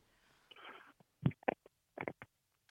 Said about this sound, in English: Oh, he hung up by accident. Oh, I heard the phone rattling too, and then he then he hung up.